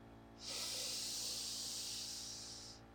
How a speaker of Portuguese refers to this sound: para no momento, aonde você estiver, aonde você estiver, fecha os olhos e começa a fazer uma respiração dessa mesma forma que eu vou fazer aqui, ó.